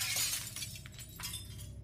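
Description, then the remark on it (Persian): The glass back door of a house shatters with a sharp crash as a cement block taken from a neighbour's garden is thrown at it, followed by a spray of tinkling, falling shards that scatter and settle over the next second or so, loud. “یه بلوک سیمانی از باغچه یکی از همسایه ها پیدا کرد و پرتش کرد سمت در شیشه پشت خونه.”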